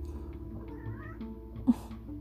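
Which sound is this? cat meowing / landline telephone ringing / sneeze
cat meowing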